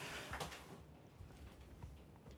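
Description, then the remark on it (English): A chair creaks faintly as a man rocks in it, soft wooden groans and low thumps repeating every half second or so. “just rocking in his chair”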